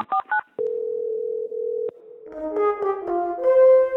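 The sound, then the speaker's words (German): A couple of quick electronic beeps give way to a steady, droning phone-style tone, then a wavering mix of higher tones, as an answering machine cassette tape starts to play back. No one speaks. “hat uns hier auch einen Anrufbeantworter Kassette zuschicken lassen, ja. äh, dass wir die mal anmachen.”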